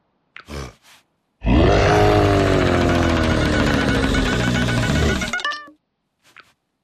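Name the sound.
lion roaring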